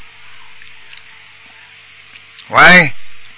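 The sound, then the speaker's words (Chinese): Steady hiss of a telephone line on a caller's call from Malaysia into a radio call-in show, then a brief loud spoken word that smears and repeats on itself, an echo returning down the phone line. “啊，你有回音啊！”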